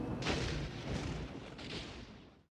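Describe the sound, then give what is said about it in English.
A deep, rolling rumble of thunder during a storm with wind and rain, a broad roar that holds steady for a couple of seconds with a few swells before tapering off at the end. No one speaks. “Oh, Charles, what? Well, what did you think it was? Thunder.”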